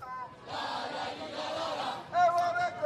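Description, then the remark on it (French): A street protest crowd with banners at a demonstration on boulevard Raspail in Paris: a dense roar of many voices builds, then gives way to louder shouting with drawn-out, chant-like calls rising above the din. “Les manifestants sont en place et les banderoles également, avec toujours la même revendication, on suppose.”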